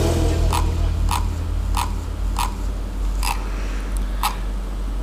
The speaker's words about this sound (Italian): Ah, oh, con sto cazzo di mouse. Che, chi è che sta scrollando con sto mouse?